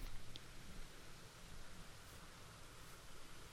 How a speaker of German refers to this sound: Ähm, ja, wenn ihr ein bisschen was rauschen hört, das ist hier unten, ist ein Bach, der hier runterkommt vom Berg.